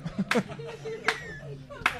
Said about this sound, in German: Das ist ein brutaler Applaus.